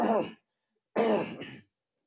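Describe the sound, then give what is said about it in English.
Two rough throat-clearing bursts, a short one then a longer, gravelly one after a brief pause, fairly loud with no talking. “See, I'm trying to clear my throat.”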